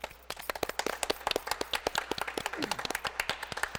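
A round of applause from a group, with many overlapping hand claps in a fast, irregular patter that holds steady throughout. No one speaks.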